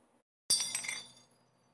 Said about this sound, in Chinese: 突然之间，一个大大的灯罩从上面倒下来，砸中了黑皮。